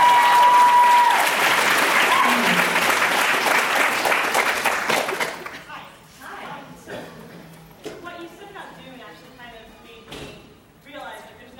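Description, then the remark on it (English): A burst of loud, dense audience applause fills the first several seconds, then fades out as people begin talking. “I'm expecting clapping.”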